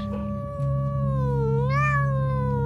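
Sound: small cat meowing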